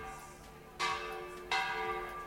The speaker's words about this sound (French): sonner les cloches de la cité pour alerter les alentours de sa victoire. Surpris d'entendre la musique des cloches, un des hommes de l'armée franque s'écrie alors Écoute,